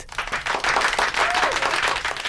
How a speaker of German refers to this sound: Er lädt Mamas Lieblingsring verschwinden. Alle klatschen.